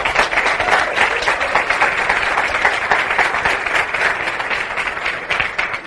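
A crowd at an event breaks into steady, loud applause for the speaker's absent wife, who is at home, many hands clapping in a dense continuous patter that holds at an even level for several seconds without any voices over it.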